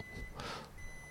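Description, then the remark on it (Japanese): Faint electronic 'pi-pi-pi' beeping from a rice cooker signalling the rice is done, a thin high tone sounding in the background of a classroom where rice was being cooked, with a brief soft rustle in between, no one speaking. “あれなんか、なんかご飯が炊いた音入ってるもしかして。”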